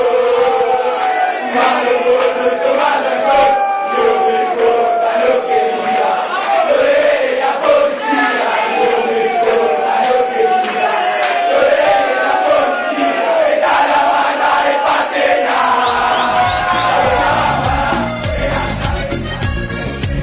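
A large crowd of football fans chants and sings together in a loud, steady mass of voices, with rising and falling melodic lines that continue throughout before a brief change near the end.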